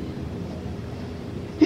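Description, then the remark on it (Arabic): A single short, sharp sneeze bursts out right at the end, following a stretch of steady low background rumble with no talking. “تأكيدا يرحمك الله”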